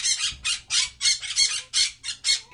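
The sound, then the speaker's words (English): A voice imitates a frantic screeching blue bird flying around a plane cockpit, letting out about eight harsh, shrill squawks in a quick, steady rhythm, loud with no other talking. “the violent blue bird known for mail fraud is flying around the cockpit frantically, like screeching.”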